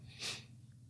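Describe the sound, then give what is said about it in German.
A single quick, breathy sneeze bursts out and fades fast, fairly soft, with a low steady hum underneath and no talking. “Gesundheit.”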